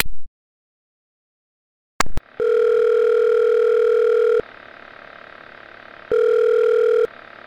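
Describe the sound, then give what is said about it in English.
A phone line clicks, then a steady electronic ring tone sounds twice in long, even bursts with a pause between, loud with no one speaking. “You're actually calling me back?”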